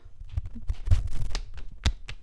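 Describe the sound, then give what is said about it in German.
Heavy footsteps stomp along as a person walks out onto a balcony, several thuds in an uneven walking rhythm, mixed with light rustling and clattering from movement, with no one speaking. “Also, da hört man den Stampfen.”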